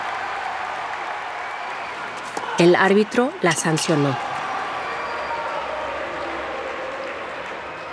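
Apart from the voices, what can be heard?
stadium crowd applauding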